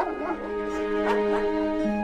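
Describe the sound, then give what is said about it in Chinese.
A big yellow dog gives two short, impatient barks in quick succession, with a brief whimpering yip before them, all over a soft, sustained musical background. “这个时候，大黄狗不耐烦地叫了两声。”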